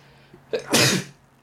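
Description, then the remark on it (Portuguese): A single sharp sneeze with a quick breathy intake before a loud burst, then quiet. No talking. “Saúde.”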